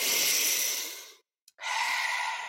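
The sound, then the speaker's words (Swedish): Two long, airy breaths, a deep inhale followed after a brief silence by a second rushing breath, both loud and breathy with no talking. “Ska vi säga så här, när man andas in, du vet, när man tar de här djupa andetagen”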